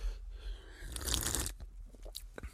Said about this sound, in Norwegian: For sånn du smaker på øl. Slurper i deg.